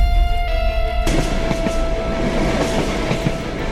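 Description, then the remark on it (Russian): A North Korean armored train rolls along the rails toward Vladivostok railway station, a loud steady rumble with rhythmic wheel clacks and a sustained tonal hum running throughout. “Северокорейский бронепоезд прибудет на железнодорожный вокзал Владивостока в четверг.”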